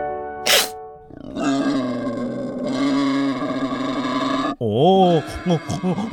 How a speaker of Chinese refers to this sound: 这是猪叫的声音。正确来说，它是山猪。嗯、呃，它的名字呢，也可以叫做野猪。